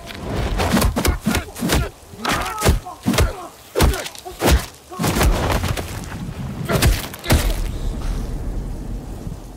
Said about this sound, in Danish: Der var mange slag der. Der var mange slag, ja. Der var rigtig mange. Der var nogle brækkede knogler iblandt der.